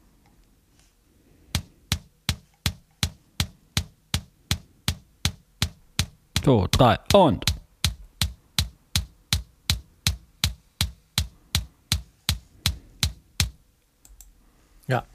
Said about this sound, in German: den Rest einfach so ein bisschen geschäbt, dass das eine druckvolle Bassdrum ist